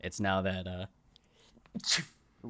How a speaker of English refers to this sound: oh, bless you. God bless you.